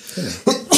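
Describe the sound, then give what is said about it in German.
A loud sneeze: a short voiced build-up followed by two sharp, breathy bursts in quick succession, with nothing else happening around them. “Gesundheit.”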